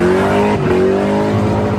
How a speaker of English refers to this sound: Burning rubber, spinning, sparks flying as hundreds watched and shot videos of this sideshow on Monterey Road last night.